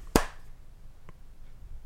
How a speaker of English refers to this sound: a clap. A clap.